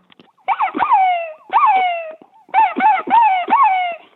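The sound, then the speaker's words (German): A person imitates a fox's barking to lure foxes while hunting, sucking in air for sharp, inhaled yelping calls like a reversed hare-distress call, in loud bursts: a double bark, a single, then a quick run of three, each with a falling, whining tail. “Ähm, das ist praktisch eine Hasenklagenstimme umgedreht und da saugt man die Luft an und bellt den Fuchs an.”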